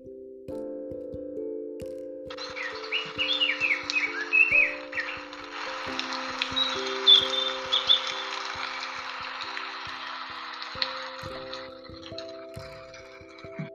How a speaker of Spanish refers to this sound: Al abrir la ventana, hemos notado el fresco del aire en la cara. Está lloviendo. También oímos el viento y los pájaros que vuelan de un lado hacia otro. Otros se posan en los árboles y otros beben agua de los charcos.